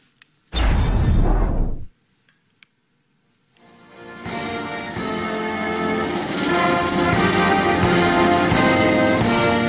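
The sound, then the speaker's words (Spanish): The castle band of Queen Elizabeth II of England plays Happy Birthday on brass for the queen's 96th birthday, loud and full, after a short burst of noise and a brief pause. The music holds steady and sustained to the end, with no voices. “ahí escuchan a la banda del castillo de la reina Isabel II de Inglaterra interpretar feliz cumpleaños”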